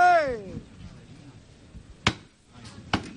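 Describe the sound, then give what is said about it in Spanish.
Two sharp wooden knocks from the foreman's hammer knocker on a procession float ring out about a second apart, following a brief shout, with a low crowd murmur underneath. “Suena el martillo.”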